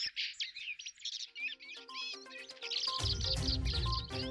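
A common blackbird sings a quick, varied run of whistles and chirps, clear, with a low rumbling noise rising underneath in the last second or so.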